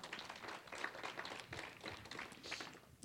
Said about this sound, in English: Can you give the Lord a hand clap of appreciation?